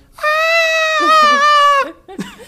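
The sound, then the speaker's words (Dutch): A voice imitates the high-pitched, panicked shriek heard in a video: one loud, sustained squealing cry lasting over a second with a slight waver, followed by a few brief breathy sounds. “en jij zat als een soort gillende keukenmeid op, ja, ik weet niet, op een bank, bank, of een bed of zo.”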